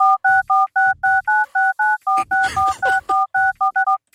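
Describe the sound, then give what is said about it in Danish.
A rapid string of about fifteen telephone keypad dialing tones for a very long phone number, each a short dual-pitched beep in quick, even succession, loud, with a brief burst of noise partway through. “Det er en meget lang telefonnummer. Det er til USA eller sådan noget.”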